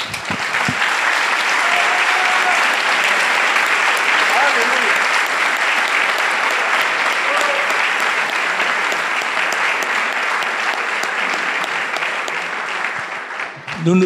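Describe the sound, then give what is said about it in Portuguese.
Sustained applause from a large audience applauding Jesus, a dense, steady wash of clapping that holds at full strength for about fourteen seconds before tapering slightly at the end. “Vamos aplaudir a Jesus.”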